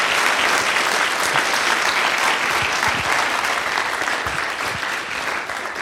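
A large audience claps steadily throughout, a dense, sustained wash of applause filling the space at a fairly loud, even level with no voices standing out.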